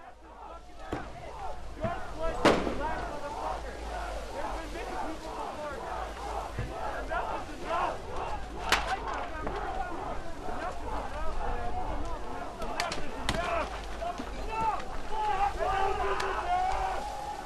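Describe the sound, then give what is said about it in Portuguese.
A dense crowd at street protests in the United States against the death of an American shouts and chants continuously. Many overlapping voices, a few sharp bangs cutting through and a low rumble underneath last the whole stretch. “O que você acabou de ouvir foram os barulhos é, emitidos por protestos feitos nos Estados Unidos nesta semana contra a morte de um americano”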